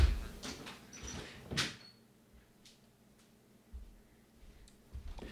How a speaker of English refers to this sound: I'm also gonna open my door a little bit.